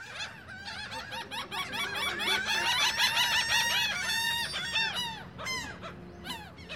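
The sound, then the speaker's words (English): A dense chorus of seagulls lets out loud, strange calls—overlapping squawks, yelps and honking cries piling up continuously and busy, with no talking. “and they're acting crazy um, and making all sorts of crazy noises that I've never heard seagulls make before.”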